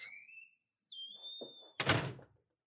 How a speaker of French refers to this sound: Hélène ouvre la porte de l'appartement, ils sortent.